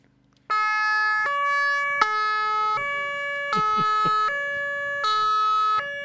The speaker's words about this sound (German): vielleicht mal ganz kurz anmachen, weil diese ganze Elektronik, die dahinter hängt, du hast ja hier überall LEDs, dieses Alarmhorn. Also ja gut, die sieht man nicht. Ja, die Sondersignalanlage.